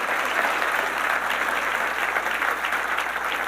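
Steady applause from an audience fills the whole stretch, a dense, continuous patter of many hands clapping at a fairly loud, even level with no voices.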